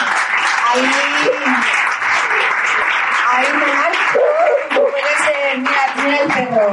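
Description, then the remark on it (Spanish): Loud, sustained applause from many hands, a dense steady crackle of clapping lasting the whole stretch, with indistinct voices murmuring beneath it. “no sé si aplaude también, también aplaude, ¿no?”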